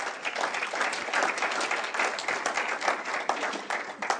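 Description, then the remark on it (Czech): An audience applauds steadily, a dense wash of many hands clapping at an even level throughout, with no voices standing out, giving another round of applause as thanks. “Myslím, že si za to zaslouží ještě jeden potlesk a pojďme jim poděkovat dnes.”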